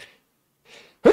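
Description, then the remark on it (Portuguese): A sneeze bursts out loudly at the end, preceded by a soft breathy intake, with a faint breath trailing off at the very start. No one speaks. “Saúde. Saúde. Obrigado.”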